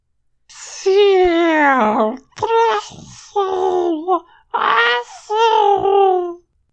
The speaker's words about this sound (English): A taxxon slithered up beside Visser Three and spoke. It was a weird, half whistling sound.